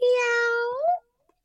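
A single drawn-out cat meow, loud and close, holding steady before rising slightly at the end and cutting off, followed by silence.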